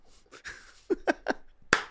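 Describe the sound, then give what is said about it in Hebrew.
A man claps his hands: a handful of sharp, crisp claps in an uneven rhythm, five or six bright smacks with short pauses between them and no talking over them. “אוי, הוא מוחא כפיים שם.”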